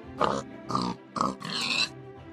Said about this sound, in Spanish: Con esos ruidos tan fuertes, yo no podría dormir. Todavía no había perdido de vista al cerdo